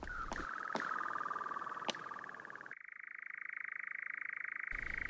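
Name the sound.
european nightjar churring song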